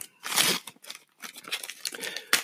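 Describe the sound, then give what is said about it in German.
A bottle being opened up close: a loud burst of crinkly scraping, several shorter rustling twists, then a sharp click near the end, with no one talking. “also es ist eine Flasche und ich werde sie jetzt öffnen.”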